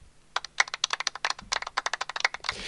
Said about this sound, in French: Et ça fait également l'applaudissement de la partie de golf.